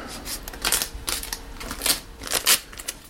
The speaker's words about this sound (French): plein de petites manipulations en fait où voilà on colle le petit pochoir à l'endroit où il doit être collé et ensuite il s'agit de, de tout masquer pour pas peindre les endroits qui ont déjà été peints. Donc c'est deux petites manips avec du, scotch